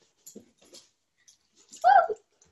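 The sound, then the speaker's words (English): A dog whimpers: a few faint, soft little noises, then one louder, brief whining cry near the end, with no talking. “we've got a dog. We've got a crazy dog.”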